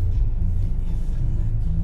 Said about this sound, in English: We got the car running, the heat keeping me warm right now shout out to the seat warmer as well.